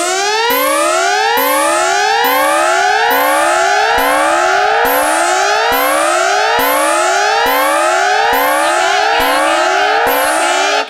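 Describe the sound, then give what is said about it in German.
A loud electronic alarm siren wails on its own during an alarm test, its harsh tone sweeping upward in quick repeating cycles, about once per second, steady and unbroken for roughly eleven seconds. “den Alarm wieder ausmachen.”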